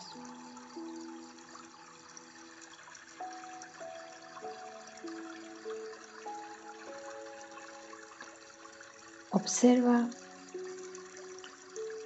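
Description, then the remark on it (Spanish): A steady wash of flowing water runs throughout beneath soft, sustained musical tones, with a single brief spoken word near the end. “cómo el agua en movimiento está en muchos estados y fluye.”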